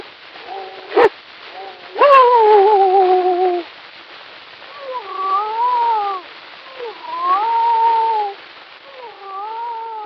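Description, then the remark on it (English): A man imitates animal cries with his mouth on a very old, small five-inch record from 1889: a string of drawn-out, wavering meow- and whine-like calls with a couple of sharp clicks early on, heard through thin, hissy sound. “And this one here is, is a guy making sound, animal sounds with his mouth.”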